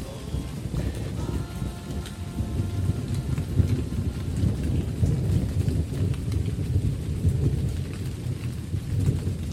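Steady rain pours down without a break while deep, rolling thunder rumbles underneath, filling the scene with a heavy, continuous storm sound and no voices.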